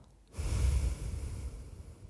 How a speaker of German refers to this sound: Jetzt darf ich mal ins Mikro schnaufen. Genau so.